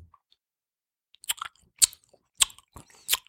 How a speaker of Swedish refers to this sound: Nej, mer. Smaska mer. Alltså, det man måste höra när du spränger vindruvan.